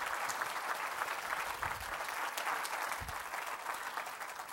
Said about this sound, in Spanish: ¿Cuántos dicen gloria a Dios? Dele un fuerte aplauso si usted gusta, hermano.